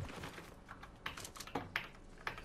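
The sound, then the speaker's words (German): Rapid clicking of computer keyboard keys, fairly loud, with several sharper presses standing out in an irregular rhythm over a low background hum, as a player repeatedly presses the E key during a video game. “Ich schwöre, ich drück. Ich, ich, ihr habt doch gehört.”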